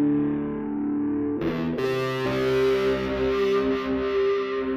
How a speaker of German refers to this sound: Trash-Chorus, ist ja auch sehr beliebt. Muss halt auch ein bisschen breiter klingen. … hat gerne solche Sounds verwendet.